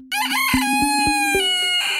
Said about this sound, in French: Voici le coq de la discorde, Maurice, 4 ans, 2,5 kg et un chant à faire pâlir toute une basse-cour.